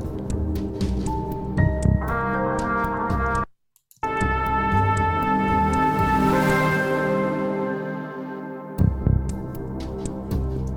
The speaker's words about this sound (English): And maybe this is like a found sound thing. It feels like like paper, like you went like which I think is very cool. You know, I love putting recorded elements, but there's some quantization things going on. It feels out of time.